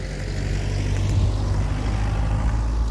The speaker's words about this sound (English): Just going to pause for a second while another car goes past.